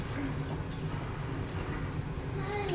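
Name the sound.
keys jangling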